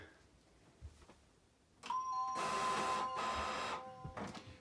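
A printer starts up: a sharp electronic beep, then a loud whirring mechanical run broken by a brief pause, followed by clicks and settling sounds, with no voices present.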